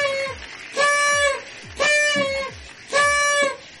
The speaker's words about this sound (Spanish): Ah, sonido de espantazuegras.